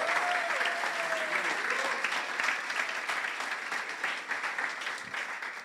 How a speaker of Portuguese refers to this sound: Você pode dar uma salva de palmas para Jesus?